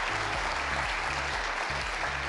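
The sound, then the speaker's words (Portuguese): A dense, steady round of applause from many hands, clapping continuously throughout at a fairly loud, even level without any voices. “Exatamente, uma salva de palmas.”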